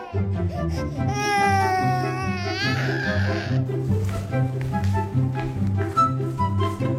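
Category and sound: human body sound, baby crying loudly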